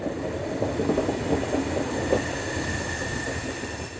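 A train rolls through the suburbs of Ankara, Turkey, rumbling steadily with a dense low roar and rhythmic rattling, while a thin, high squeal from its brakes drags on through the middle of the passage.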